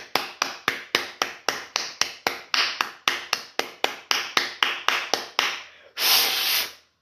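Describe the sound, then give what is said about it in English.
A quick, even run of about twenty sharp taps, followed by a brief breathy rush of air, an attempted whistle that comes out mostly as hiss with no clear tone. “can't whistle, but that was a whistle.”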